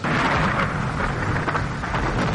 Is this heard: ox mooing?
no